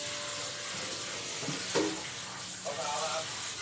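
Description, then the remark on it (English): A kitchen sink sprayer, used by a man washing dishes, hisses steadily throughout, a broad rushing spray, with a few brief higher-pitched clinks or squeaks cutting through partway. “I really thought I was okay with the dishes being done while I do this. But I forgot. My husband uses the sprayer.”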